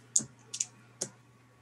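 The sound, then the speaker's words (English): A few sharp, hard clicks of dice, including an eight-sided die, being rolled and clattering on a surface: a tap, a quick double knock, then one last click, over a faint steady hum. “I rolled a 12 and an eight-sided dice.”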